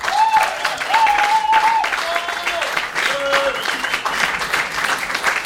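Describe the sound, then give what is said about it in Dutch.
An audience of about 10,000 people in a hall claps steadily for about five seconds, a dense, even patter of many hands, with a few voices cheering or calling out over it. “geef hem een applaus.”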